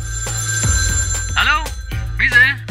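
A telephone rings twice for an unexpected incoming call, each ring a short warbling electronic burst separated by a brief pause, clear over a steady low background hum.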